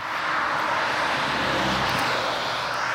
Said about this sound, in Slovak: Pred chvíľou tu preletelo lietadlo.